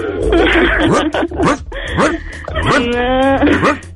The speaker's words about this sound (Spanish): Oye, déjate, déjate, pasamos al perro porque también quiere hablar.